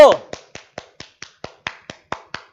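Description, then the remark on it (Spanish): Steady, brisk clapping: about eleven sharp, evenly spaced claps in quick rhythm, like one person applauding on their own, opening with a louder burst of sound. “Aplausos, chingada madre, por Dios.”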